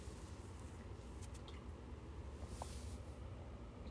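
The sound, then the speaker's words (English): Faint splashing and dripping of drinking water spilling over a person as they try to drink, a few soft wet squishes and drips over a steady low background hiss, no voices. “Oh my word, I just tried to drink water and it spilled over me.”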